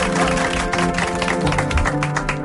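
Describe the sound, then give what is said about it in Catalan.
A steady burst of applause marking the programme's 17th anniversary on RAC, many hands clapping densely and loudly for a couple of seconds, with some tonal sound running faintly underneath. “Doncs aplaudiment, no?”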